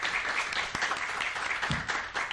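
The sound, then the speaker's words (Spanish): A steady burst of clapping from a crowd, dense and continuous with a bright, crackling texture, holding at an even moderate loudness throughout. “muchas gracias a todos muchas gracias por haber gracias por apoyar el podcast un aplauso”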